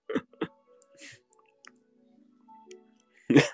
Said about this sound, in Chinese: 为啥咳嗽嘞？就刚才听到说要把我嫁出去，我就有一点惊讶。